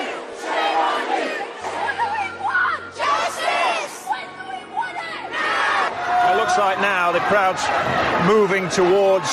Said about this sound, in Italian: In questo momento la folla sta entrando nel municipio di Kensington. Entrance to the offices of Kensington and Chelsea.